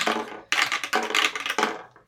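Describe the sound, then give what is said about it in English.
Several bursts of hard clattering as dice tumble and rattle across a hard surface, fairly loud, in quick uneven clusters over about two seconds, rolled by players of a tabletop role-playing game. “Uh, let's roll some dice.”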